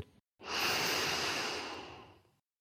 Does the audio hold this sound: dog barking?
no